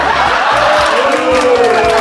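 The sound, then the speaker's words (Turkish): A live audience boos loudly and steadily for a couple of seconds, many voices merging into a dense, sustained crowd jeer with scattered shouts and laughter mixed in. “İstediğiniz kadar yuhalayabilirsiniz.”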